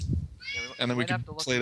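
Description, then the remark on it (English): A cat meows in a few drawn-out, fairly loud cries, with a person talking over and around the meowing. “If if yes, that's a cat.”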